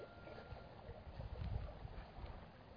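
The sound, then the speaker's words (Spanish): Water laps and sloshes in soft, irregular pulses against a low, rumbling background, rising briefly in the middle before settling, at Monte Tabor in the cold darkness before dawn, with stars visible. There are no voices. “¿Escuchas el agua?”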